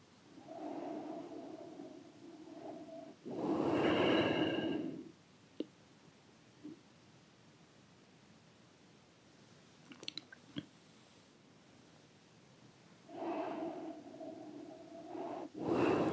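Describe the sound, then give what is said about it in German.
Slow, deep breaths with no talking during a guided relaxation exercise: a long inhale, then a louder, rushing exhale, a long quiet pause with a few small clicks, and another drawn-out breath starting near the end. “Und dann wieder zweimal atmen, langsam und tief.”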